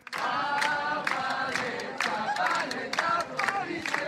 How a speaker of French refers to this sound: Drapeau décroché, brûlé, en marge du festival de théâtre de rue, la foule s'est réunie devant le palais de justice au son de chants féministes et anti-police.